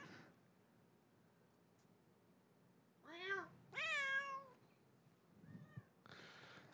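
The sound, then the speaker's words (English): A cat gives two drawn-out, complaining meows in quick succession, the second longer and louder, with faint room noise and a small shuffle afterward. “the worst uh, cat in the world.”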